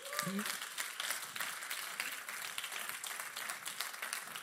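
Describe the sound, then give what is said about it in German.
A crowd applauds steadily for the Holy Spirit, a dense wash of many hands clapping at once, sustained and fairly loud throughout with no break, a brief voice fragment at the very start. “Ein Applaus für den Heiligen Geist.”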